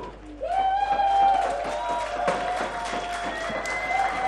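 A lively crowd in a pub bursts into applause for their host, with scattered claps mixed with whistles and cheering voices, steady for several seconds.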